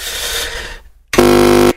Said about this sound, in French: je crois que le téléphone nous en veut aujourd'hui.